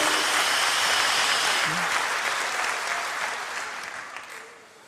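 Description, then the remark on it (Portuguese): A church audience bursts into sustained, dense applause for the Holy Spirit, loud and steady for several seconds before gradually thinning and fading out at the end. “Dá uma salva de palmas ao Espírito Santo.”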